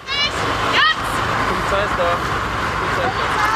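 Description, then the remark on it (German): A small police car with one person inside pulls up through busy street traffic at an activist road blockade, its engine blending into a steady roar of road noise and crowd chatter, with a couple of brief rising tones near the start. “Jetzt kommt auch die Polizei, da kommt erstmal so ein kleiner Wagen mit einer Person drinne und das könnten wahrscheinlich gleich mehr werden.”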